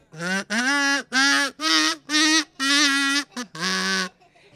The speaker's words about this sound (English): It's time to take out your kazoos. If you don't have one, come up and get a kazoo. Everybody should have a kazoo.